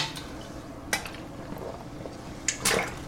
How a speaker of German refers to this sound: Trinken habe ich auch dabei. Apropos, ich muss mal einen Schluck trinken.